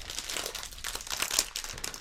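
A snack bag crinkles and crackles steadily as it is handled, with bursts of sharp plastic rustling for about two seconds and no talking.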